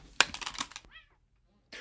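A short, high meow rises and falls after a burst of clattering noise, followed by a brief pause and another scrape of sound.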